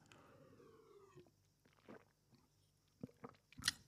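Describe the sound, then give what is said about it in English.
Someone quietly sips water: a faint slurp, then several soft gulps and wet mouth clicks spaced over a few seconds, ending with a slightly louder swallow. No one speaks. “All right, let me take a sip of my delicious water.”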